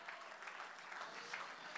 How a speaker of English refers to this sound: If you believe that here today, why don't you clap your hands for a moment?